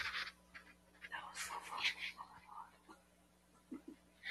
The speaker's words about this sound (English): You are whispering a lot. No one's gonna hear anything you're saying, but that's fine.